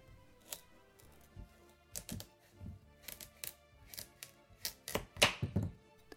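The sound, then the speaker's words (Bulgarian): A knife cuts through firm pumpkin flesh, slicing it into rounds, with a series of sharp, irregular thunks against a cutting board, fairly quiet, with no one talking. “Това е един чудесен и полезен есенен плод, който нарязвам първо на шайби.”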